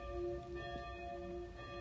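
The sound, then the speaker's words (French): Clock bells ring in a song with sustained, overlapping metallic tones that hang in the air, heard quietly with a soft low rumble beneath and no voices. “il y a quelque chose de très fort dans cette chanson je suis vraiment perturbée par l'horloge l'horloge enfin les cloches”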